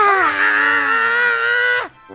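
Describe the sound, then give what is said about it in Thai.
A person imitates a giant opening his mouth wide and roaring as loud as he can, pretending to be a lion to scare children: one long, strained vocal cry that holds steady for nearly two seconds, then cuts off abruptly, leaving near silence. “ต่อมาใหญ่ได้คิดที่จะทำให้พวกเด็ก ๆ นั้นกลัวอีก จึงได้อ้าปากกว้างและคำรามให้ดังที่สุดเท่าที่จะทำได้”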